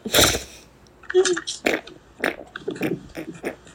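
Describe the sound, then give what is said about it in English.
A short, raspy fart noise blown with the lips bursts out at the start, followed by a few seconds of indistinct voice sounds and chatter. “She farted. That was my mouth.”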